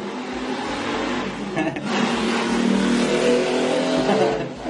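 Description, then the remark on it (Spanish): A motorcycle engine revs loudly, a steady throaty drone with a brief dip partway through before the engine swells again and holds for the rest. “voy a bajar de la moto. Y es un invitado a la moto.”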